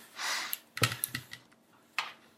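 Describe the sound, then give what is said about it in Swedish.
A handful of sharp mechanical clicks from a clicky keyboard switch, irregularly spaced with a quick cluster early and a lone click near the end, after a soft breathy hiss. “Och det är ljudet ska själva switchen nu. Ja. Precis, just det. Det där är bara switchen.”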